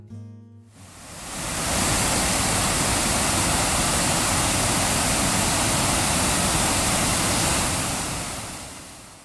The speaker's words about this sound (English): I thought it'd be a great idea to record the falls for this episode. As it turns out, they sound like snow on your TV set, from back when you might flip to a channel that you didn't get on an antenna